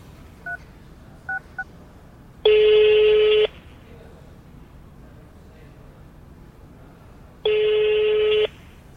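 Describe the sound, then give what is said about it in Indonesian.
A few quick telephone keypad beeps are followed by two long, steady ringback tones about five seconds apart, heard clearly over a faint low background hum. “Ah, telepon lu deh.”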